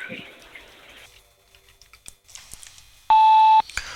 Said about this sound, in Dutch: Spreek naar de toon uw naam en telefoonnummer in. Dan bel ik u zo spoedig mogelijk terug.